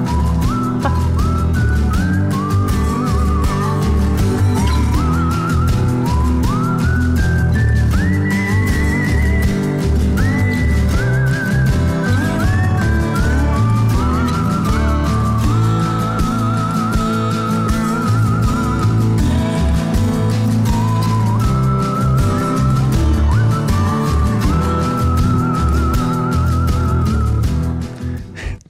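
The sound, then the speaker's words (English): A bright whistled melody carries a lively Western-style instrumental theme from the video game Paper Mario and the Origami King, a take on a Morricone Western theme, over steady rhythmic backing, loud and continuous, with no voices, cutting off near the end. “it really is just a very fun, catchy take on a Whistle Morricone Western theme, but worth playing.”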